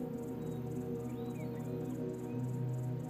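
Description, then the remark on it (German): Crickets chirp in a steady, rapid rhythm, set against a low, continuous humming drone that fills the background throughout. “Du hörst das Zirpen von Grillen, entfernt das Rauschen des Meeres und dann noch etwas.”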